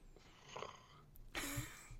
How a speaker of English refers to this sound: that was an audible gasp.